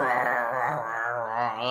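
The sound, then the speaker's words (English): A person's voice imitates a dog growling, one sustained, wavering rumble lasting under two seconds, fairly loud, with no other talk or sounds around it. “You go home and the dog is like, like”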